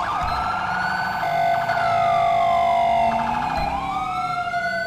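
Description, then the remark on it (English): A loud siren of a stolen ambulance wails continuously, its pitch sweeping slowly up and down over rumbling traffic noise, steady throughout. “Well, you guys got a stolen ambulance.”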